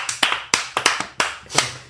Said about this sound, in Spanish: Un aplauso, por favor.